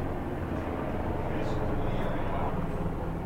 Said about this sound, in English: Well, we're not far from Fort Campbell, and that had the sound of a big helicopter. Some of their finest flying over.